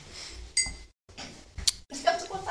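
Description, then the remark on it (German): Glass bottles clink and rattle in a few short, bright knocks, with a quiet fizzing hiss between them as a beer bottle is handled and opened at halftime. “Jetzt machen wir erstmal ein oh, Bier ja, auf.”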